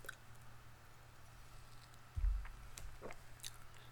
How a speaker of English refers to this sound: Excuse me. I'm not taking a sip, but I actually am.